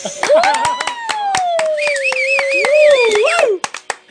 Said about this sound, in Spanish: Por el otro lado, en la pista número, número 7, tenemos nada más y nada menos. Apláudale, apláudale, por favor, que al muñeco, al muñeco del éxtasis.